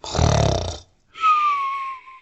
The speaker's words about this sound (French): Elle a vu papy qui enlève toutes ses dents d'un seul coup avant de se coucher. Il les place dans un verre d'eau sur sa table de chevet et commence immédiatement à ronfler.